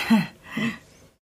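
a person yawning

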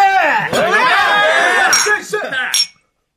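glasses clinking

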